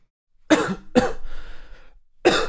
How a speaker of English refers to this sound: This uh seltzer makes me cough more. This like mm. the carbonation. You know when you eat like uh, salt and vinegar chips and you like inhale and you want to cough. Mm-hmm. It's like that.